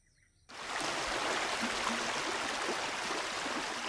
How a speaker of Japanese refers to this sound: 女と僧はずんずんと道を下りやがて玉を解いて流したような美しい川に出た